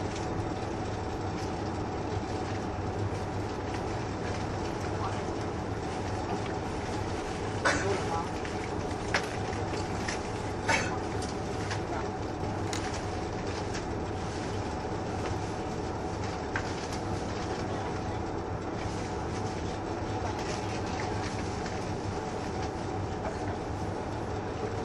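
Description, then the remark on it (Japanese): The Yufuin no Mori No. 3 resort express, a diesel train bound for Beppu, departs Yufuin at 12:39 and runs steadily, its engine droning low and constant beneath a few sharp clicks and clacks from the rails, with no voices heard. “12時39分発電車指定席のリゾートエクスプレス湯布院の森3号別府行きです湯布院を出ますと大分終点別府の順で停車をいたしますまもなく発車をいたします閉まるドアにご注意ください”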